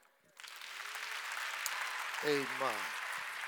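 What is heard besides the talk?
audience applauding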